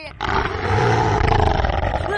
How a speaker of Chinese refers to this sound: 好大的声音啊！不会真的有车子爆胎了吧？ 呃，大头博士的耳朵好笨呢。呃，明明是棕熊在叫了。